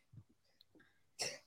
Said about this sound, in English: Bless you. Bless you.